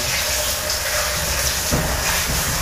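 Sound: shower running water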